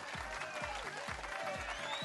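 Steady, dense applause fills the whole stretch, a continuous crackle of many hands clapping, with a regular low thumping beat pulsing underneath about twice a second. No one speaks.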